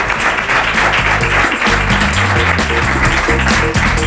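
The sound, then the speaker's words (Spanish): An audience claps steadily and loudly for the full four seconds, a dense crackling wash of many hands, with low sustained tones shifting underneath. “Están todos, les aplauden.”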